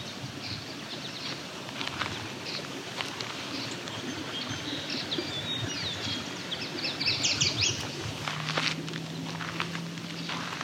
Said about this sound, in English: There we go, another kingbird flying over.